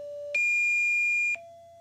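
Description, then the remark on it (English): Steady electronic pitch tones from an 11-second online message thought to be a spy board, a digital equivalent of a number station: a mid tone, then a loud, higher, harsher tone held for about a second, then a lower tone again, with no voices. “each one 11 seconds in length and containing pitch sounds and a blue and red rectangle”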